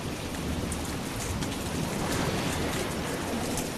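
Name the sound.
rainstorm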